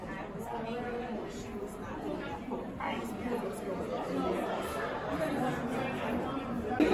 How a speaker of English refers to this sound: This is some of the crowd. This is not all of the crowd.